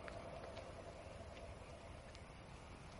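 A horse's hooves clip-clop slowly and unevenly as the horse, without its rider, arrives at the gates of a palace by day; the scattered hoofbeats are faint beneath a steady wash of background noise.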